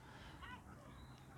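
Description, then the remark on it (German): Seagulls call faintly over steady outdoor background noise in Alicante, with a short harsh, nasal cry near the middle and a thinner, higher squeal shortly after. “Es hört sich so an, als würden sich die Möwen gleich über mich hermachen.”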